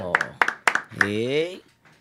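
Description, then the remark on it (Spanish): A few sharp hand claps in a quick, steady rhythm, followed by a loud, drawn-out vocal cheer, then a brief faint tail, as two young musicians are welcomed. It sounds like sparse applause rather than a big crowd. “Un aplauso para ellos.”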